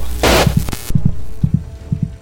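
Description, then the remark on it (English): A low, thudding, faltering heartbeat sound effect in steady lub-dub pairs, four beats in quick succession, opening with a brief burst of loud rushing noise and then continuing alone over a faint hum. “The heartbeat faltered as if affected by Charles' refusal.”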